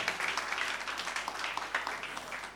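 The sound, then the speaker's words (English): An audience claps together in praise of the Lord in a steady, dense patter of many hands, the sound sustained and fairly even for a few seconds with no talking over it. “Clap your hands.”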